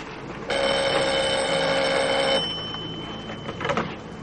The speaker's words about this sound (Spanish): Suena el teléfono de la barra.